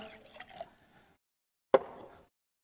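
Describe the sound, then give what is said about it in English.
Water is poured from a cup: a brief burble of liquid, a short pause, then one sharp splash that settles into a soft fading trickle. No voices. “Here's my cup of water.”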